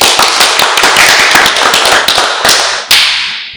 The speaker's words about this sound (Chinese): 那我们今天已经很努力的跟大家录完我们这集，那我们就要一起掌声鼓励结束。